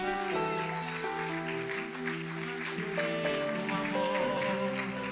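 An audience applauds with dense, steady clapping for several seconds, while sustained keyboard chords play underneath at a moderate, even loudness.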